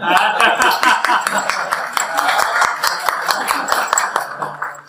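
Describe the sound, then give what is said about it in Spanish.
An audience at a parish church service applauds the pastor, with steady, dense clapping lasting the whole stretch at fairly loud level, and scattered chuckles and voices mixed into the crowd noise. “Pero este día, tal como nos lo decía nuestra querida pastora, un aplauso para la pastora, por favor.”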